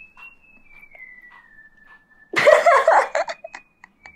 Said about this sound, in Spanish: Pasó un carpintero, pasó un carpintero por acá que comenzó a silbar.